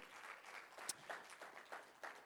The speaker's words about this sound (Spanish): una aplauso fuerte al Señor, déselo fuerte.